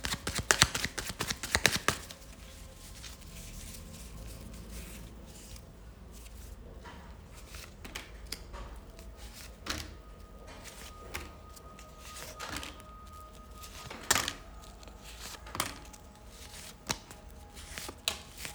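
Tarot cards being shuffled during a partner tarot reading: a burst of rapid papery riffling at the start, then intermittent softer slides, taps and flicks of cards over a quiet background, with no talking.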